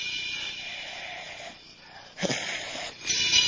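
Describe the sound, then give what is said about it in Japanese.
A voice imitates an old woman's raspy, wheezing breaths in pitch darkness, drawn-out and hoarse, with a sharper, louder gasp partway through and another swelling breath at the end, alone without speech. “真っ暗闇の中、老婆の息遣いだからどんどんどんどん二人近づく。”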